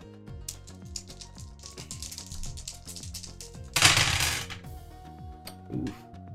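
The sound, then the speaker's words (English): Four dice clatter and tumble across a hard surface in a rapid run of small clicks, with a louder rattling burst midway before settling. Fairly quiet, with no talking. “No, that's four dice for that one.”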